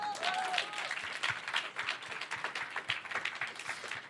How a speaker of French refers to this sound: Applaudissements pour Meredith Gray.